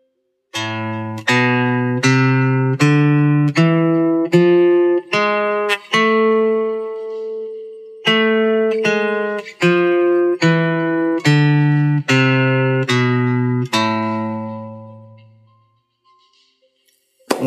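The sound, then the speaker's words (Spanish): An A harmonic minor scale (the A natural minor scale with the seventh degree raised a semitone, to G sharp) played as even, synthetic-sounding tones, climbing note by note, pausing briefly, then stepping back down, ending on a long held low note that fades out. No voices. “La escala es la misma escala de la menor natural, pero que se le agrega un semitono al séptimo grado.”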